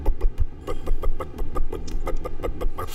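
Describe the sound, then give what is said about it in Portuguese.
A voice imitates a Dodge V8 engine's burble with a fairly loud run of about a dozen choppy, sputtering pulses at a slightly uneven rhythm, rumbling low underneath. “o próprio som do motor V8 do Dodge é diferente.”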